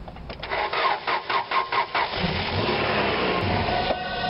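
A car engine cranks with a rapid, rhythmic chugging that turns into a steady whirring grind, but it never catches and fires up. It's fairly loud, with no voices.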